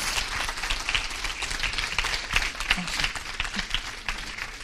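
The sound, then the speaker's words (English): A church audience stands and gives a speaker a big round of applause in the morning, a dense wash of many hands clapping at an even, sustained level with no pauses, voices barely present underneath. “Would you stand and give him a big round of applause this morning?”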